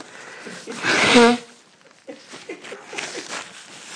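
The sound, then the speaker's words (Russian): A single loud sneeze bursts out, sharp and breathy with a brief voiced tail, followed by quieter murmuring talk. “Я начинаю чихать.”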